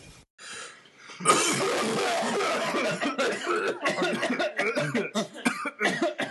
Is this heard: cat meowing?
no